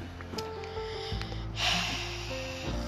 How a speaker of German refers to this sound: LKW. Kannst du bitte nicht so viel Lärm machen? Ich bin hier gerade am Podcast machen.